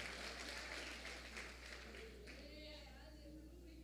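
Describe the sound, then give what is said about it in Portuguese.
An audience applauding to the Lord: many hands clapping in a dense, steady wash that thins slightly toward the end, with faint voices and a low hum underneath. “Aplauda ao Senhor, sim, Ele é digno.”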